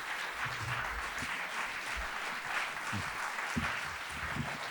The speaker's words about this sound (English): Gosh. Thank you. There's a lot of that clapping.